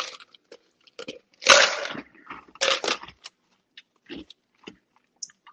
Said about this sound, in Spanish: Déjenme tomar agua, pues.